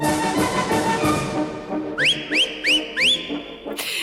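Orchestral music of the Sportpalast waltz plays, then four loud, sharp whistles slide upward one after another in a steady rhythm, fitting the beat of the music, the traditional whistling during the Sportpalast waltz.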